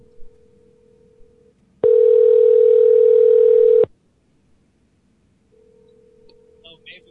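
A steady telephone dial tone after the other party hung up hums faintly, then blares loud and harsh for about two seconds before cutting off, and returns faintly a moment later, with no one speaking.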